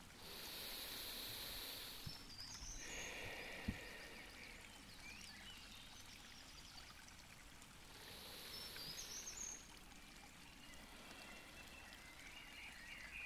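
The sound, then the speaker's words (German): A steady, gently rushing forest stream flows throughout, with bright chirping birdsong and a few high insect-like trills sprinkled over the water's continuous hiss. “Lausche den Bach, lausche den Vögeln.”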